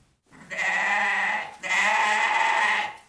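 Two long, loud bleats from a goat, separated by a brief pause, each a strained, wavering cry with no talking around them.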